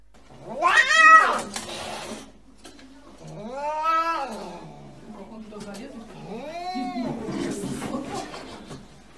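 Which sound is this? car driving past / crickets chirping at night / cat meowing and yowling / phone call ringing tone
cat meowing and yowling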